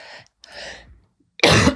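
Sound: cough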